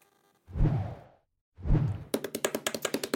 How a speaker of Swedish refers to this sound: Hör vad det här är? Ja. Det är djungeltrumman.